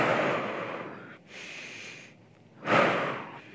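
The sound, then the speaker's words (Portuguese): A deep breath drawn in and let out, followed by a second strong breath, airy and noisy with no talking around it, as part of an exercise of concentrating on the breathing. “Respira e se concentra na respiração, ó.”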